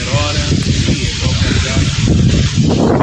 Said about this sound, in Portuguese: O vento realmente está muito forte